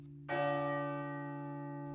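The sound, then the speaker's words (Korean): A single temple bell strike rings out softly at about a quarter second, its rich harmonic tones sustaining and slowly fading over a steady low hum, heard alone without any voices. “은은히 울려 퍼지는 종소리처럼 시도 사람들에게 울림을 줍니다.”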